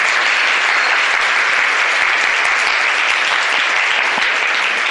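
An audience applauds steadily for the whole stretch after a speaker's lecture, a dense, loud wash of many hands clapping at once with no pauses and no voices rising above it.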